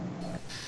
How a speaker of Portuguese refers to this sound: Mano, isso foi um peido? O que foi isso? Não sei. Ah, foi é a minha cadeira que tá rangendo.